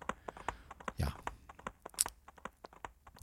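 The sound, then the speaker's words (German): Rapid hoofbeats of a ridden horse clatter in a steady, slightly uneven clip-clop rhythm, with a brief muffled thump partway through and no talking over it; a sound effect played by pressing a key repeatedly, not a loop. “kann euch jetzt natürlich kein Wendy-Hörspiel bieten, aber wir reiten ein bisschen Pferdchen hier”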